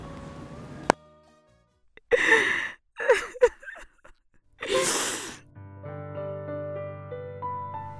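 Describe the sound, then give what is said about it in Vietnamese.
A woman weeps softly in a few shaky, gasping sobs and sniffles, quiet, after ending a phone call with her mother, before gentle music fades in underneath and carries on alone. “Đấy, bà chị lúc gọi điện về nhà động viên bố mẹ lạc quan tương tửng thế thôi Nhưng chờ mẹ tắt máy rồi mới dám khóc”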